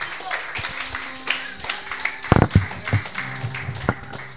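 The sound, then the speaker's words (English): A church audience applauds as their President comes forward to introduce the day's speaker. A dense, irregular patter of many hands, with a louder burst of claps midway. Faint murmuring voices and a low hum run underneath. “Please give him a round of applause as he comes.”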